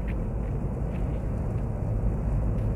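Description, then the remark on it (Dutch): Wind blows in a steady, heavy rumble, a constant low buffeting roar that holds throughout with no voices, heard while travelling by car to South Limburg, Netherlands. “Zo, ik begint er eens heel te waaien.”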